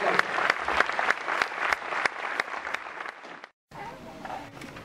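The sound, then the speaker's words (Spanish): An audience claps steadily for about three and a half seconds after being asked to give a round of applause, a dense patter of many hands with some sharper individual claps, before it cuts off and quieter background noise with a faint voice follows. “Entonces démosles un aplauso.”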